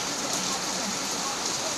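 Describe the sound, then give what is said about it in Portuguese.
Heavy rain pours down on a Sunday in a dense, continuous hiss, steady and fairly loud throughout, with no voices or other sounds breaking through. “Um domingo de muita chuva,”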